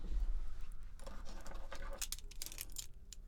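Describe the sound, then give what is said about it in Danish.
Keys with an AirTag attached jangle and clink inside a bag amid rustling and rummaging as a hand reaches in, a quiet cluster of irregular metallic clicks that grows busier toward the end, with no talking. “Hvad fanden laver mine nøgler nede i bonusposen?”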